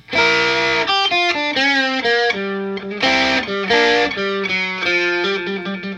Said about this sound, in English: I moved the mic farther away from my guitar amp, and I got a different sound